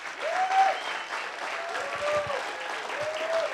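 An audience applauds the Lord for their pastors, a dense steady wash of clapping from many hands filling the space, with a few sustained tones and a faint voice rising above the crowd noise.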